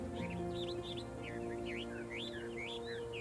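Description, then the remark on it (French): A small blue songbird in a cage sings a rapid, continuous string of bright rising and falling chirps and whistles over a steady low background hum. “Et dans la cage, un ravissant oiseau bleu qui se met à chanter de toutes ses forces en voyant Hu.”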